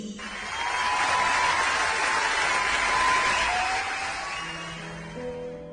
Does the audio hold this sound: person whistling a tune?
no